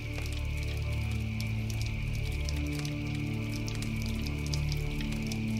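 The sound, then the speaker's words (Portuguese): Firewood crackles steadily in a fireplace, with irregular sharp pops and snaps scattered over a constant low rumble, moderately loud, with no voices. “Ficamos escutando o som do criptar da lenha, olhando para as chamas e sentindo o calor que envolve nosso corpo e o relaxa.”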